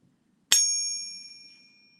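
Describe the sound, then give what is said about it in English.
A single bright metallic ping from a struck four-nines (.9999) fine silver coin, ringing with clear high tones that fade slowly over about one to one and a half seconds, alone against a faint low hum. “Listen to the duration here. Right, maybe one one and a half seconds of ping.”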